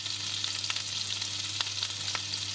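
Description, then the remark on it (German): Hot butter and oil sizzle steadily in a frying pan on an induction hob in Munich, a dense crackling hiss with scattered sharper pops, continuous with a low hum underneath and no talking. “so ihr hört, es brutzelt. Ähm, die Butter und das Öl ist jetzt in der Pfanne heiß.”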